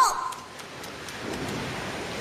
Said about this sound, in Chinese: 海浪的声音